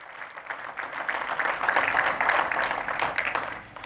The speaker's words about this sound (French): Puis j'imagine que si c'est ton cas, tu vas applaudir pour dire merci Seigneur parce que tu as touché ma vie.